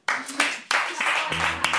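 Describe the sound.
Two people clap unevenly for a couple of seconds, a bright, sparse patter of overlapping hand claps, with a voice briefly sounding underneath toward the end.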